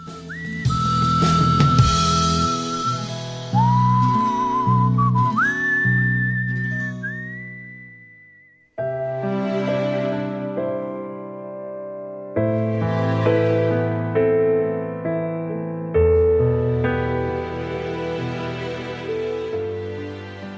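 A Korean pop song plays at steady volume, here an instrumental stretch with a bright, whistle-like lead melody gliding over sustained chords and a warm bass line, with no singing.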